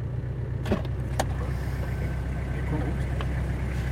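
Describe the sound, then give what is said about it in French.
An off-road car grinds along a slippery track, its engine droning steadily with a heavy low rumble, broken by a couple of sharp knocks and rattles near the start. “il faut non seulement avoir une bonne voiture, mais de bons pneus, euh, tout terrain, parce que là, ça glisse”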